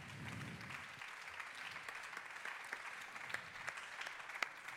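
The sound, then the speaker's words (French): An audience claps steadily for the teams of the conservatory and Marseille Jazz 5 Continent, a dense wash of many hands with a few sharper individual claps standing out, moderately loud and sustained without pause. “toutes les équipes du conservatoire et de Marseille Jazz 5 Continent, qu'on peut d'ores et déjà applaudir très fort, c'est eux qui ont transformé le lieu.”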